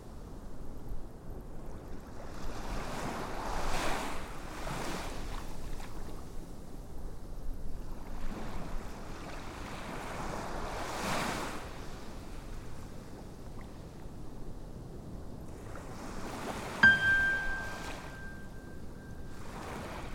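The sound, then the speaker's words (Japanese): Ocean waves roll in and break in slow, steady surges, each hissing swell rising and fading every few seconds, during a seashore imagery mindfulness meditation; a single bright chime, rung at regular intervals as a cue, rings and lingers near the end. “海辺のイメージ瞑想”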